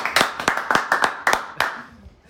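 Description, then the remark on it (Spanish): A short burst of applause: around eight or nine sharp, fairly loud claps in an uneven rhythm, thinning out and stopping after about a second and a half, with no talking. “Un aplauso, por favor.”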